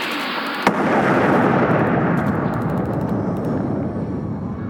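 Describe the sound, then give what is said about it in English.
A single sharp, loud explosion of 10 pounds of explosive hidden inside a phone and set off by a homing signal bursts out after a brief quiet moment, then gives way to a sustained roaring rumble with scattered crackles and debris-like patter as it slowly fades. No voices. “That's 10 pounds of explosive on a homing signal hidden inside that phone.”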